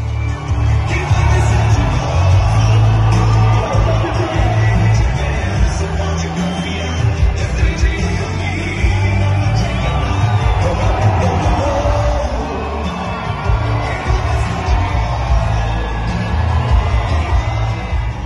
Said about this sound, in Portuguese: Na sexta, Bolsonaro visitou a tradicional festa de rodeios com direito ao jingle de campanha tocado no sistema de som e palavras de ordem gritadas pelo locutor oficial do evento.